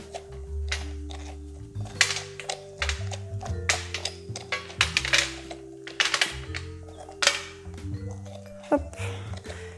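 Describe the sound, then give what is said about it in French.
Repeated scraping and clicking as a spoon digs all the seeds out of the inside of a red kuri squash (potimarron) being prepared for stuffing, in short uneven bursts over a steady low hum, with no talking. “Et je viens gratter toutes les graines à l'intérieur de mon légume.”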